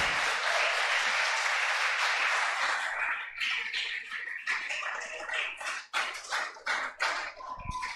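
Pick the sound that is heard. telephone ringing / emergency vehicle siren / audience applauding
audience applauding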